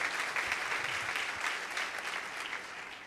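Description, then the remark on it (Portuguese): A church audience claps steadily in applause to God, a dense, continuous wash of applause, fairly loud and sustained throughout, with no voices standing out. “Você pode aplaudir a Deus porque Ele está transformando você.”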